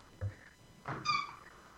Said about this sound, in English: if you hear something squeaking in the background, that's my yeah. puppy playing with a oh. squeaky toy.